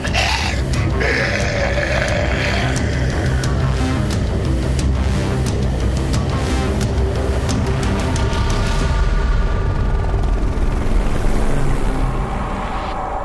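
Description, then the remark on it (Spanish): A helicopter roars overhead, its heavy rotor thrum and engine whine loud and steady throughout, swelling slightly before easing off at the end. “¡Es un helicóptero!”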